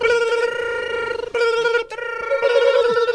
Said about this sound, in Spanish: A ver, ahí están sonando las líneas. Ahí están sonando los teléfonos como locos.